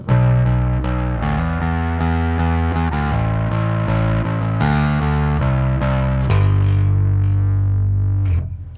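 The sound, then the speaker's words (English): A loud, distorted electric guitar plays a chunky chord riff to test its tone, changing chords in a steady rhythm, then lets a final chord ring out and fade. No one speaks. “I'm gonna test my tone. Song is ….”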